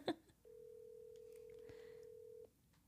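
A steady, flat telephone dial tone hums for about two seconds, fairly clear and close, preceded by a brief click, with faint background noise and no talking.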